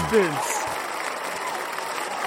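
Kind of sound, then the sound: crowd, applause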